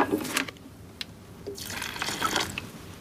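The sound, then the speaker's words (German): Water poured into a concrete mix of sand, gravel and cement, an uneven splashing and gurgling with a few short drip-like spatters between the louder pours; no one speaks. “Wer nicht gerade ein Holzhaus baut, der muss auf diese Zutaten zurückgreifen aus Sand, Kies, Wasser”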